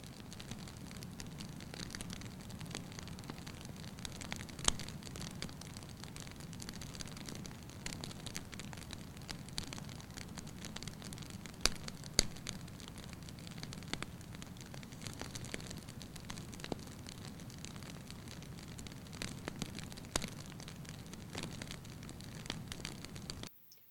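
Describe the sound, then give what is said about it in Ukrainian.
A fireplace fire crackles steadily on its own on a cold winter morning, scattered sharp pops and snaps rising irregularly over a soft, continuous hiss and low rumble of burning, fairly quiet. “Холодний зимовий ранок, а ти сидиш біля каміну чашечкою теплого, ароматного чаю.”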